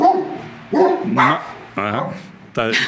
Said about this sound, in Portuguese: Cachorrada participando.